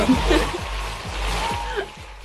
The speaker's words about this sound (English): I think we should get a clap